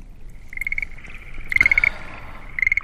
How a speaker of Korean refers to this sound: 아, 개구리 소리군요. 이게 아마 한밤중에 녹음한 것 같죠? 네. 개구리 소리.